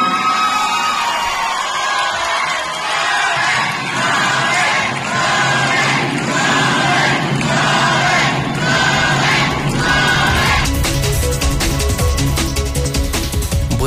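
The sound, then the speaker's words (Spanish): A large crowd of thousands from across Mexico chants "Gober, Gober, Gober" in a steady rhythmic cadence as federal deputy Tere Jiménez is presented at a Partido Acción Nacional event, loud and continuous, with shouts and cheers mixed in; near the end the chant gives way to a dense, sustained roar. “Así eh, fue recibida al grito de Gober, Gober, Gober.”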